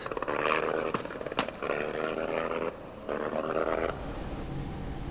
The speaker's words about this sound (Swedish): Jag flög efter i min Fokker, men glömde att kolla bränslenivån. Inspektionen från ovan förlöpte väl, men när jag påbörjade inflygningen började motorn hosta betänkligt.